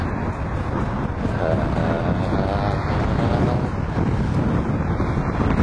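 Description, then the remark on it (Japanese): Loud, steady strong wind on a cold day buffets the microphone throughout, a dense low rumble with gusty flutter that never lets up, drowning out any other detail. “強風ジョニー”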